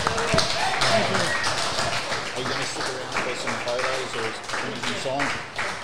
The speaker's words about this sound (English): Ladies and gentlemen, it's been a treat talking to Neville Glover. How about a round of applause for the great Eels legend, Neville Glover?